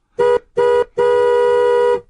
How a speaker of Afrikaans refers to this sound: Meneer Mutiki blaas sy taksi se toeter.